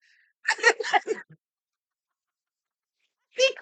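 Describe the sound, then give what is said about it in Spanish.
A person imitates a turkey gobble: a quick, warbling burst of throaty pulses, a pause of silence, then another short gobbling burst starting at the end. “Como guajolote, ¿no? Como guajolote, espiando por hoyo de casa.”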